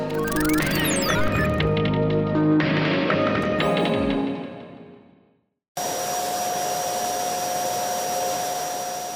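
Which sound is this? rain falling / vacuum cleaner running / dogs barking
vacuum cleaner running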